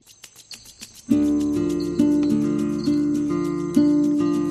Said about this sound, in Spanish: Hay un grillo ahí que desafina,